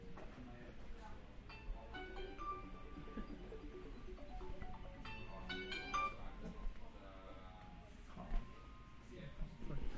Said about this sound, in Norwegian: ringer noen til meg. Det er jo dritflaut.